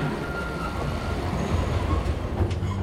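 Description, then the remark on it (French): A mine cart rumbles steadily along metal rails, a close, continuous low roll with faint metallic whines, and a brief squeal near the end as it comes to a halt. “Un chariot vient de s'arrêter tout près de nous.”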